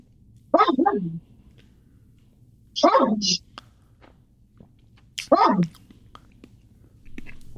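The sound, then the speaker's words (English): A dog barks three times, single sharp yelping barks spaced a couple of seconds apart, loud over a low background hum, with no talking. “What's that noise? That that's a dog.”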